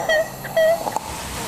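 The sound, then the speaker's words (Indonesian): A person whimpers and sobs in a voice note, two short, high, strained cries, then gives a brief catch of breath. The crying is fairly loud, with no talking. “Ada suara nangis.”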